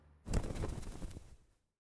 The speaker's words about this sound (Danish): Han kigger op i luften og ser den flotteste fugl flyve hen over ham.